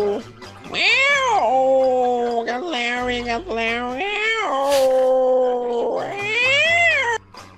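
A cat meows loudly in a series of long, drawn-out, wavering yowls that rise and fall in pitch, with only brief pauses between cries.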